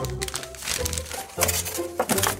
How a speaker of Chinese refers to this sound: 农场老板娘一边开心地说，一边把包装拆开。